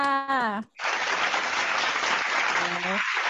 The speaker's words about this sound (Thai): ไม่มีอะไรแล้วค่ะโอเคค่ะขอเสียงปรบมือให้เจ้าหน่อยค่ะ